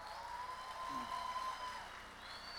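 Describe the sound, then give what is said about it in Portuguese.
A church audience applauds newcomers who joined the church that year, with a steady, dense wash of clapping at a fairly soft level, a faint sustained tone humming underneath and some voices mixed in. “Vamos aplaudir você por essa, por essa galera que chegou esse ano, então?”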